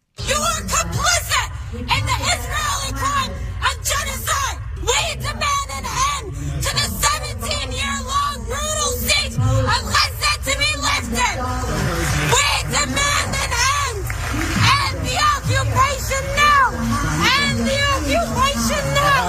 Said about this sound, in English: Uh, she got yelled at by a bunch of free Palestine protesters.